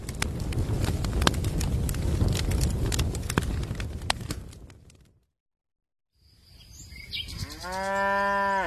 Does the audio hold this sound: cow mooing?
yes